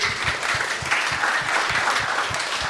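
An audience claps steadily, a dense wash of many hands with a fairly even, moderately loud level and no voices standing out, applauding a young animator called up during a television programme.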